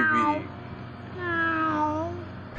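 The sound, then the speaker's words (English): A kitten meows twice: a short, high cry, then a longer, wavering meow that rises and falls, both clear and fairly loud over a faint background hum. “All right, let's get into this little cat”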